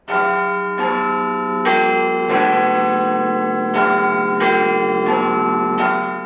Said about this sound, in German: den Ton, den die Rudolstädter Klangschalen Klingschalen machen. Den wollte er als Klingelton haben. Das war dieser Ton hier.